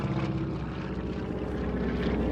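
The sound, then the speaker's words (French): A small amphibious propeller airplane drones steadily and loudly in flight, its engine producing a constant buzzing, harmonic hum that fills the whole stretch without any pause or voices. “Dans ce petit avion, on a un extraordinaire sentiment de liberté.”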